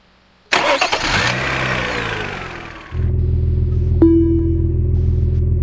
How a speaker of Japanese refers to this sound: 車に乗り込み、エンジンをかける。